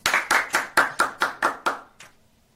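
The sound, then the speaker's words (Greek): A single person claps about eight times in a quick, even rhythm, each clap crisp and loud, with the last one softer before it falls quiet. No one speaks. “Ένα χειροκρότημα παρακαλώ.”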